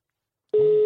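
After a moment of silence, a steady electronic telephone line tone starts abruptly and holds at one even pitch, clear and moderately loud, as a call is placed.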